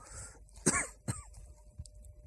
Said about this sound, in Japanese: せ、ね、咳き込みながら話してますけどもね。